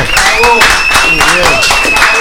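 A loud crowd roars with continuous clapping and excited shouts. The dense noise of the cheering stays steady throughout, with a thin sustained whistle-like tone riding above it.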